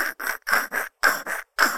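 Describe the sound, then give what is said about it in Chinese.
A voice imitates a lyrebird mimicking a saw cutting wood, with about seven quick, breathy rasping strokes in a steady back-and-forth rhythm, each one a harsh hissing burst separated by short gaps. “然后他学的都是一些什么榔头在敲铁钉啊，嗯、或是一些锯子在削木头这种声音。”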